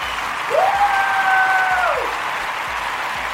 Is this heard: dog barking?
no